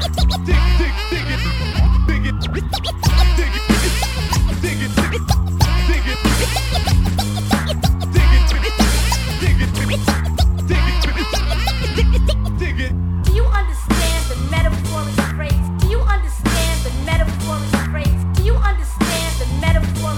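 A hip-hop track plays loud and steady, with a heavy repeating bass beat, punchy drums and turntable scratching, plus rapped vocals running over the music throughout.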